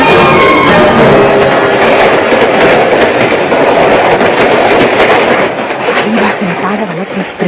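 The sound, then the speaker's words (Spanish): A train rolls steadily along the rails, a loud, dense rumble with rattling, clattering wheel noise that never lets up, while indistinct voices are buried under the din. “Ya vas a ver ese tren”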